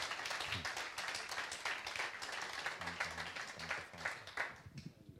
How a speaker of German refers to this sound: Let's give a Jesus hand clap. Lasst uns Amen. Jesus einen Beifall geben.